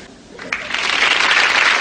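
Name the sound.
studio audience applause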